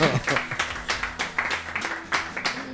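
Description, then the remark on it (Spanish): A short burst of applause, with sharp, uneven claps coming in quick succession while people keep talking over it at roughly the same loudness. “Así que, por favor, otro aplauso para la ley.”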